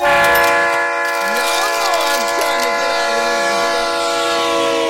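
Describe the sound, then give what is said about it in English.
A loud train horn sound effect, used as a hype train alert, blares as one steady, continuous chord for several seconds, with faint sliding tones weaving underneath. “Did we just start a hype train?”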